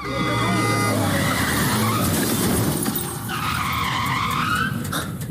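In a scene from the film Adios Buenos Aires, a car skids with loud, wavering tire squeals, then collides with a taxi, with a crunch and what sounds like breaking glass, all continuous under a dense, noisy background.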